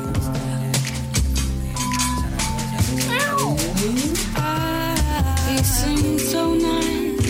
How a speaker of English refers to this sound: Was it was that a cat in, in there? Sounded like it.